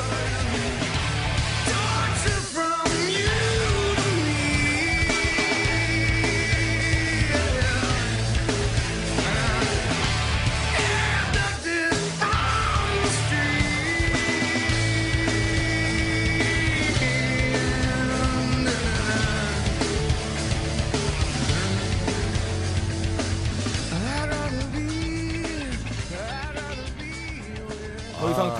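A loud, dense full-band rock track plays continuously, with driving guitars and drums under strained, shouted lead vocals, steady in volume from start to finish.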